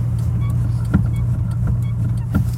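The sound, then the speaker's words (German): Steady low engine drone and road rumble from inside a small green Volkswagen Golf driving in Oberhausen, Germany, on its way to an ATU auto shop for a new battery, with a few soft clicks and knocks over the continuous hum; no one speaks. “Und deswegen fahre ich jetzt nach ATU, Meister gegen das Geld sparen und äh, spende dem kleinen grünen Golf eine neue Batterie.”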